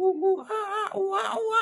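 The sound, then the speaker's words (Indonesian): A person vocalizes short, high, wavering monkey-like calls, a quick series of bright squeals and hoots rising and falling in pitch, moderately loud. “Monyetnya menjawab,”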